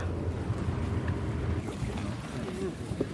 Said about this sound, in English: Das Boot legt gerade an.